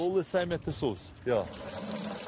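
Water pours steadily as residents collect water at a public spring in Cape Town, South Africa, a continuous splashing rush that follows a few brief spoken words and carries on alone to the end.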